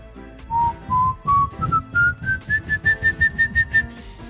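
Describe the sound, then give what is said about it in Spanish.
A person whistles an eerie imitation of the whistle of a horror legend about a man who whistles, a string of short, clear notes that climb steadily in pitch and quicken as they go, fairly loud with no talking. “Es de un güey que chifla así.”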